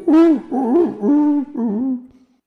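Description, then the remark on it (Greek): A voice imitates pigeons cooing, like those in a courtyard outside a bedroom window: four rolling, warbling coos in a row, each swelling and dipping, fairly loud, then trailing off into silence. “Αλλά το θέμα είναι ότι το παράθυρο του δωματίου μου κοιτάει προς μια αυλή που έχει μόνο περιστέρια. Οπότε ακούω...”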